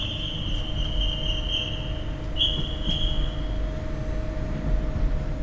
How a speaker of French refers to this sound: Voici l'intercité numéro 5951 à destination de Clermont-Ferrand va partir. Prenez garde à la fermeture automatique des portes. Attention au départ.